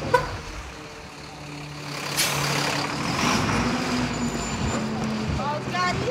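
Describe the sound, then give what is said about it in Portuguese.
A car passes on a busy street, its engine rumble swelling over steady traffic noise, with a heavier garbage collection truck idling and people talking in the background. “Olha o carro, olha o carro.”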